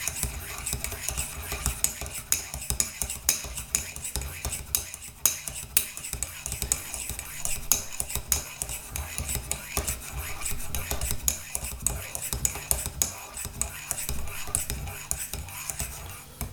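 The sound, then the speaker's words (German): A spoon stirs a latte in a cup, making a steady stream of quick metallic clinks and soft scraping against the sides that continues for about sixteen seconds, with no talking. “Und mein Latte. So, ein bisschen rühren natürlich.”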